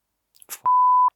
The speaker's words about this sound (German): An der Stelle müssen wir wahrscheinlich piepen. Ich weiß gar nicht, ob wir das Wort im Podcast verwenden.